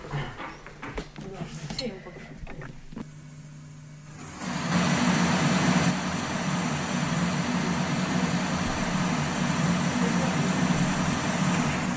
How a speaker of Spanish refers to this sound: Este sería el ruido blanco